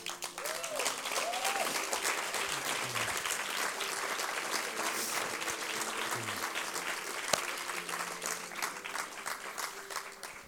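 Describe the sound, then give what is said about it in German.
Sustained applause from an audience welcoming someone onto the stage, a dense, steady wash of many hands clapping for about ten seconds at even loudness, with faint murmuring beneath. “Deswegen darf ich mit einem großen Applaus”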